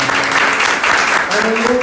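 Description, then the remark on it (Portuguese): An audience at a church service claps steadily for God the Father in a dense, continuous wash of applause, with faint voices and a sustained tone running underneath. “Dá uma salva de palmas para o Pai”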